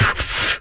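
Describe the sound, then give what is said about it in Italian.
A voice imitates an airplane toilet flushing: a short, loud, breathy whoosh of rushing air lasting under a second, then fading abruptly at the end. “È il rumore del cesso degli aerei.”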